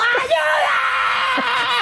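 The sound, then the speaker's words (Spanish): A woman's voice imitates a frightened scream, a loud, sustained high-pitched shriek with a wavering pitch lasting nearly two seconds, intense. “Grité tanto que el ladrón se asustó y salió gente a ayudarme de un café.”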